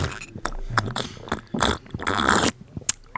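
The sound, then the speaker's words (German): Wet mouth noises as someone tastes a drink of syrup mixed with water, one part syrup to nine parts water: a few airy slurping pulls mixed with small smacking sounds, coming in irregular bursts with no talking. “Du hast früher noch nicht so geschlürft”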